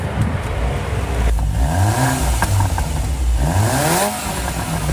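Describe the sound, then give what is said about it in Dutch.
A compact Porsche with a 2-litre turbo engine is started and idles, then revs twice in rising and falling sweeps, a steady mechanical rumble underneath. No one speaks. “Ik sling hem aan voor je, Mario.”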